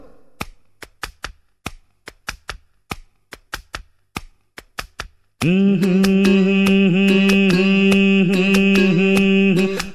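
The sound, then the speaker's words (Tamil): Hands tap out a quick, rhythmic pattern of crisp slaps on a person's head for about five seconds, then a loud, sustained tonal drone of music abruptly takes over. “டே ரொம்ப தட்டாதடா தாளம் தட்டுறதுக்கு என் தலையாக கிடச்சிது மெதுவா மெதுவா”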